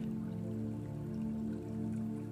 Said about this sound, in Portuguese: Agora você sai do rio e anda até a grama aquecida. Se imagine se imagine deitando na grama e ouvindo o barulho da água corrente.